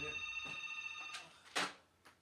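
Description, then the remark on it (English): A work phone rings with a steady electronic tone for about a second, fairly quiet, then stops, followed by a few soft rustling, handling noises. “Oh, fuck, it's my work phone.”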